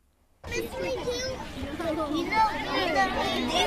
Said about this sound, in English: This is the sound of young students from Wellington's Sacred Heart Cathedral School waiting to give politicians their views on climate change.